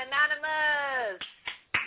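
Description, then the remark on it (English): A held vocal sound gives way to three sharp hand claps, spaced unevenly and fairly loud, each a brief crisp smack, given as a birthday greeting on a show. “Clap for you.”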